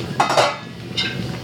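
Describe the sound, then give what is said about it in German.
Metal cookware and utensils clatter in a few quick knocks as vegetables and chicken are fried in a wok, with a faint sizzle-like hiss lingering between the clinks. “Dann schmeißen wir das Gemüse in den Wok mit dem Fleisch und brutzeln das alles schön an und dann kommt noch ein bisschen Gewürze dazu.”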